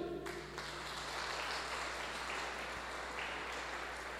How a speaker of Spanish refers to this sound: Amén. Le damos un aplauso a nuestro Señor.